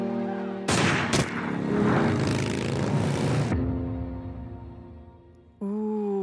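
A loud gunshot from a film soundtrack, followed quickly by a second sharp crack, then a long rumbling echo that fades into a low sustained drone before music swells in.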